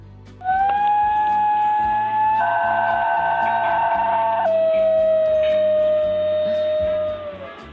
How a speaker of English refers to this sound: we are talking about a special kind of dog in Papua New Guinea. It's called the Highland Wild Dog and also the New Guinea Singing Dog because it sounds like this.